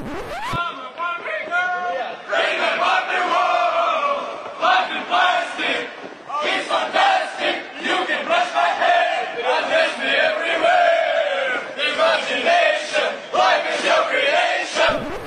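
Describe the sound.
A large group of men chant a song together in loud, rhythmic unison, like soldiers on the march, their massed voices rising and falling steadily for the whole stretch.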